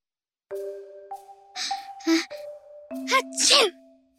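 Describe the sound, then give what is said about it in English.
A big, exaggerated sneeze with breathy build-up bursts and a loud final explosive burst, set against steady sustained electronic tones, fairly loud. “Ice cream let out a huge sneeze.”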